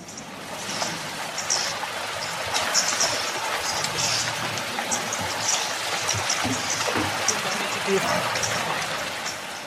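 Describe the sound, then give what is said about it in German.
Steady rush of flowing river water with scattered splashes and sloshing as a herd of buffalo stands drinking and crosses the river from right to left. The wash stays even, with a faint murmur of voices underneath. “Ruhig, besonnen, die stehen da, saufen, die haben ein Ziel, von rechts nach links über den Fluss zu laufen.”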